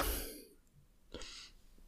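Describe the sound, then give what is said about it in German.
A yawn right up against the microphone: a loud, breathy rush of air that fades out, followed by a shorter exhaling breath. No one speaks. “Ich gähn dann mal ins Mikro.”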